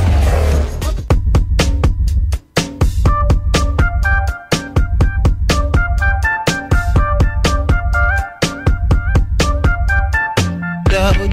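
An R&B song plays loud and close, with a steady thumping beat, deep bass and bright melodic keyboard lines, an instrumental stretch with no singing.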